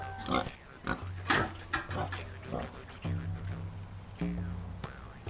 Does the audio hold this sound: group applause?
no